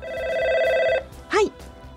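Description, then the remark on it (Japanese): A telephone rings with a fast, trilling electronic tone for about a second, clear, then cuts off and is followed by a brief swooping beep over a low background murmur, during a call to the Fukuoka City oversized garbage reception center. “粗大ゴミを捨てるときはまず粗大ゴミ受付センターに電話をします”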